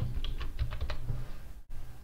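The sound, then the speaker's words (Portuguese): Quick bursts of typing on a computer keyboard, a run of light clicking keystrokes, pausing briefly before a final short flurry, as a destination, São Paulo, is typed into a travel website's search field. “Então, inclusive quando você vai digitando, ó, sei lá, São Paulo,”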